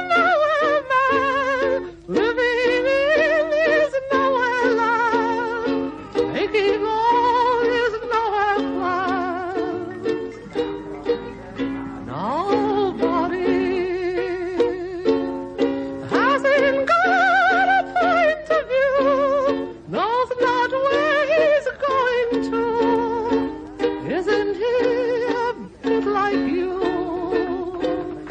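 A man sings a melodic song in a high, wavering voice with vibrato and sliding notes, backed by steady accompaniment at an even, fairly loud level throughout.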